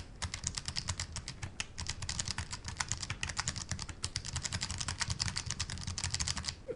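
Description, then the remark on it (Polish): Rapid, steady typing on a keyboard with soft, light keystrokes, the keys pressed gently rather than all the way down, clicking in a continuous stream, quiet overall, with no voices. “Dość szybko można pisać na tej klawiaturze, muszę powiedzieć.”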